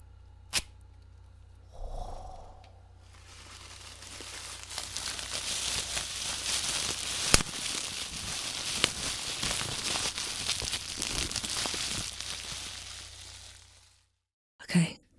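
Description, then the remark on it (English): A foley effect of a campfire being started: a brief rustle and soft thump, then a long stretch of dense crackling and crinkling noise with occasional sharp pops, ending abruptly with a final clatter. “If you guessed that the sound effect was starting a campfire, then great job!”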